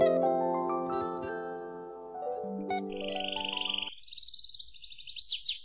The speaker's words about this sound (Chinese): 小鸟们叽叽喳喳的在半空当中挥舞着翅膀，小鸽子们低头在灰堆里找豆子，拾啊拾啊拾啊。